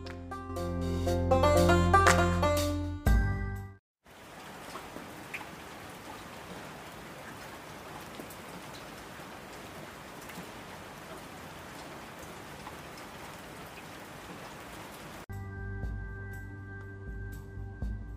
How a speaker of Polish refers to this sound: Jest za zimno i pada deszcz, powiedział dziadek.